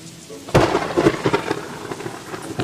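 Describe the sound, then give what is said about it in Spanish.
A sudden loud crack of thunder at about half a second, from a lightning strike about six kilometres away, rolls into a rumbling, crackling roll that gradually fades, with steady rain hissing underneath throughout. “Ese rayo cayó a seis kilómetros de aquí.”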